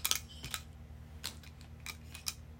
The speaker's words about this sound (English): Okay. Next, I'm shuffling my tiles.